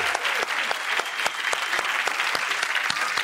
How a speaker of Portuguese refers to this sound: Vamos aplaudir.